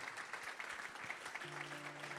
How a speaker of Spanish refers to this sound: Si tú lo crees, dale ese aplauso fuerte al Señor.